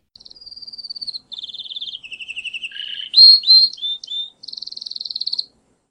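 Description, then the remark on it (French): A small yellow canary in a cage sings a lively, continuous song of rapid high trills and warbling phrases, clear, changing pitch from one run to the next, with no voices. “Écoute, je t'ai enregistré son chant.”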